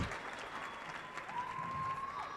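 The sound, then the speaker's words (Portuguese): An audience claps their hands for Pastor Paul and the testimonies in a dense, continuous burst of applause that stays steady and fairly loud, with a faint sustained tone ringing through it toward the end. “Vamos bater palmas para o pastor Paul, para os testemunhos.”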